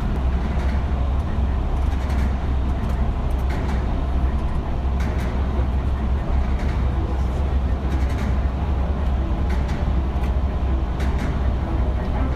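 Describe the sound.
An amphibious bus engine in Lübeck drones steadily and loudly throughout, a deep continuous rumble with a rattling mid-range texture and faint, indistinct voices. The seaworthy bus floats on a welded stainless steel float and is driven by two 200 hp jets.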